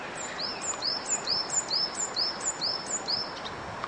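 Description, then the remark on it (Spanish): A small bird chirps a quick, evenly spaced series of high, thin notes, about eight in a row, over a soft outdoor hiss with no one talking. “porque es que te habla todo, como el pajarito este que acaba de hablar.”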